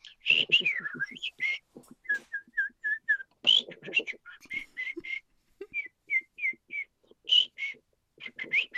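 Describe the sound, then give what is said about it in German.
A person whistles a lively imitation of birdsong, mimicking a nightingale and blackbird with quick trills, repeated short chirps and warbling phrases, clear with no talking. “Und da gab es Nachtigallen und Amseln. Und die habe ich nachgemacht, als kleiner Bub schon.”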